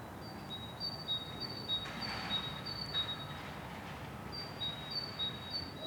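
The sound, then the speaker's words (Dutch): Thin, high bird calls repeat in brief bursts as birds communicate, over a very faint, steady low rumble of background traffic, with no voices present. “Op dit moment zit vooral communicatie tussen vogels.”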